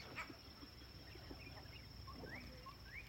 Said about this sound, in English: I've got in two new guests to my not quite ripe fruit tree. They're go away birds can hear them. There he goes.